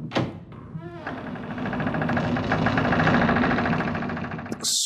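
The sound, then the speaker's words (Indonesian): On a chilly night, a door creaks open slowly in one long, grinding groan that holds steady for several seconds, then ends with a short knock. “Uh, serem ada bunyi-bunyi ini ada bunyi pintu.”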